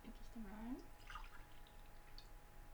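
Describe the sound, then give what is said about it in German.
Water is poured briefly into a glass, its trickling tone rising as the glass fills, followed by a few soft liquid drips against a quiet background. “Na, ich werde aber noch einen Schluck Wasser Ja, gerne.”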